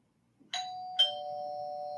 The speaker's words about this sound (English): So he rang the bell on the stick house.